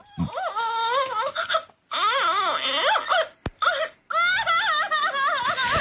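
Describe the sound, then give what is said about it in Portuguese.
A woman imitates a crying baby into a microphone to record the sound for a toy, producing several drawn-out wailing bursts with rising and falling pitch, broken by short pauses, loud. “tu que já fizeste teatro amador, não queres fazer de bebê chorar para este microfone?”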